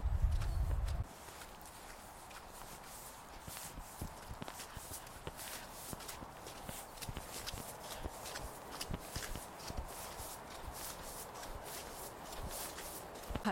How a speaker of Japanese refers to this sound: いいですねこの雪の中をザクザク歩く感じ音が聞こえてるかな私の歩く音ねザクザク歩く音がいいですねこれが冬の雪の散歩って感じがする